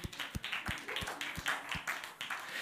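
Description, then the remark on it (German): A crowd applauds with dense, steady clapping, punctuated by a regular low thump roughly three times per second, as if some people are stomping or beating time. The clapping stays at a constant level. The applause is for the people working on the stage. “Gebt ihm mal einen Applaus den Leuten, bitte.”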